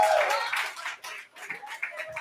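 A crowd at an audition night applauds the top five in a dense, steady wash of clapping that stays loud throughout, with a few faint voices and whoops mixed into the noise.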